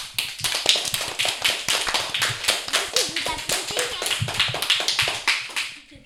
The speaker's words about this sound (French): On peut les applaudir bien fort.